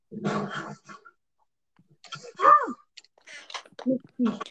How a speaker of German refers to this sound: Jetzt, jetzt hat er einfach einen Hund geschlagen, jetzt hat er drei Hunde hinter sich.